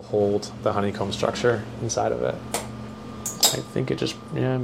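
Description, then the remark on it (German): A sharp snap as one of the parts connecting a food 3D printer to its base breaks, heard as a couple of brief, bright cracks amid clinking mechanical noise, with people talking over it, followed by an emergency stop. “Haben Sie das gehört? Da ist eines der Teile gebrochen, die die Maschine mit ihrer Basis verbinden.”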